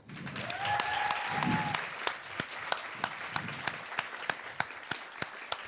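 An audience applauds warmly, starting as a dense wash of clapping with a brief whistle, then thinning into fewer, sharper claps that fall into a loose steady rhythm.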